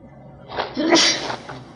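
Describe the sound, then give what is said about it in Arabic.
A single person sneezes once: a short, sharp burst of breath with a hissing release, moderately loud, with no talking around it. “رحمك الله”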